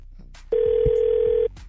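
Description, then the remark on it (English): A telephone rings at the start of a prank phone call: one steady electronic ring tone lasting about a second, loud on the line, with faint murmuring voices just before and after. “But first, come on, it's time for the prank phone call, nephew Tommy.”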